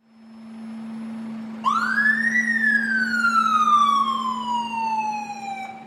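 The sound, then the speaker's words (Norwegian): An emergency vehicle siren in Oslo, Norway starts up partway through, sweeping up quickly and then sliding slowly down in one long wail over a steady low engine drone. It is loud, with no voices. “et tog av utrykningskjøretøy kommer inn i den gaten og ikke kommer frem”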